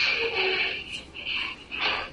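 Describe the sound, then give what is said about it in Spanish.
A garage door closing, heard as a series of raspy, hissing bursts that rise and fall in an uneven rhythm, fairly loud, with no one talking. “No, es la puerta del garaje que, que cerró.”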